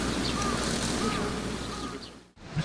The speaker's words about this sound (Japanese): 3月31日木曜日、2日目、密着2日目ですけども、えー、朝、小鳥の鳴く声がしながら、えー、円熟のメンバーが平和記念公園へと向かってきます。